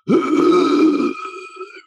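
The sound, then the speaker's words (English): A voice imitates the breathing of a dying man with lung issues: a single labored, rasping gasp for breath, strained and voiced, lasting about a second before trailing off into a fainter wheezy exhale. “And my dad had lung issues and he would breathe,”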